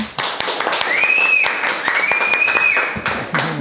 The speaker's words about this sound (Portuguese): Salva de palmas.